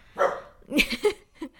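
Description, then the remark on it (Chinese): A dog barks several times in quick, uneven bursts, sharp mid-pitched woofs with short pauses between them, loud and clear with no talking over them. “啊，我们的狗就是世界上的一切都跟它有关啊，就鲁迅说的那个什么遥远的远方，什么无数的人们都和我有关啊。”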